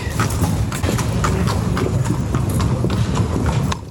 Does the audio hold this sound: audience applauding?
no